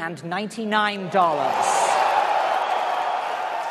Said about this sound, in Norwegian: Sony høstet stormende jubel da de presenterte PlayStation 4 i natt. Gigantene Sony og Microsoft presenterte sine nye TV-spillmaskiner på verdens største og viktigste spillmesse, E3 i Los Angeles.